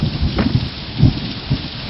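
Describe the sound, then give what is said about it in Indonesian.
Steady, dense rain hisses throughout a thunderstorm, with low rumbles of thunder swelling up three times, loudest around the middle. No one speaks. “Badai bertambah baik untuk itu.”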